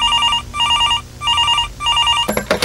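A telephone rings in four evenly spaced bursts of warbling electronic tone, each about half a second long, followed by a brief clattering handset pickup sound, opening a phone call with Lula while he was in Araraquara, São Paulo.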